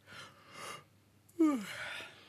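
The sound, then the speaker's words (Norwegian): A person gives one deliberate, performed yawn: a long breathy inhale, then a loud voiced exhale that slides downward in pitch and trails off into breath. No other talking. “Altså, kan du gjespe en troverdig gjesp?”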